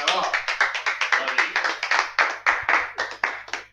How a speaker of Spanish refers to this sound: Un aplauso.